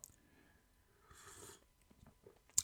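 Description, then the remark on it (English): A single soft, airy slurp of tea about half a second long, fairly quiet, with faint mouth noises around it and a sharp click at the end. “Let me just slurp my tea.”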